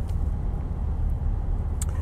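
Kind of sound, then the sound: vehicle, car interior road noise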